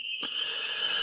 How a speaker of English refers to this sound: So I know you guys probably hear in the background, I got the peeper toads rolling. And everybody knows that that's the first sign of spring here in Ohio.